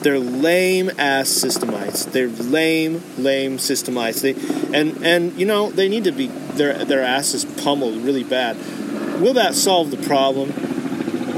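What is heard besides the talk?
helicopter flying overhead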